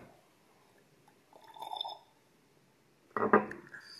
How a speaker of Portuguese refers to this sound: Diga aí, me diga aí enquanto eu tomo um golinho d'água.